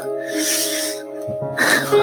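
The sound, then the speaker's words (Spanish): A voice imitates nervous, heavy breathing: a long, loud breathy exhale, a brief pause, then a sharper, rougher gasping breath. No words are spoken. “Muy nervioso. Con esa respiración”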